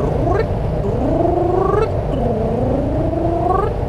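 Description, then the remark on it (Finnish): A voice imitates an elephant seal call with a few drawn-out, wavering, buzzy tones that slide up and down, fairly loud over a constant low rumble, with no actual words spoken. “Ne on elephant seals, englanniksi, kutsuttakoon niitä nyt vaikka elefanttihylkeiksi tai merinorsuiksi tai mit, mitkähän niiden nimet on, niin ne laulaa semmoista jännää”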